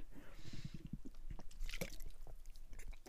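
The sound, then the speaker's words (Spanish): Someone drinking water: a few quick wet gulps and swallows with soft mouth and liquid noises, fairly quiet, with no talking. “También estoy tomando mucha agua porque mi garganta se me seca así.”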